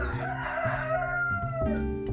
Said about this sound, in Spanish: es de nuestro amigo el gallo Claudio que nos acompaña. A él no me lo llevaría. A él lo dejamos.